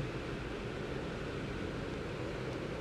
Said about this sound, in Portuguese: Deus segurou a chuva até a hora que eu cheguei em casa, aí beleza. Aí desabou o mundo. Não sei se dá pra ouvir a chuva de fundo aqui.